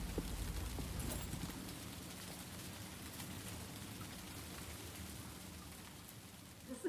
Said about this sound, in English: watching through a huge pane glass window as the city rained itself out.